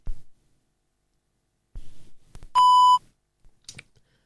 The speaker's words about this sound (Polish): Kiedy usłyszymy taki właśnie sygnał, oznacza to, że PenFriend jest uruchomiony i gotów do współpracy.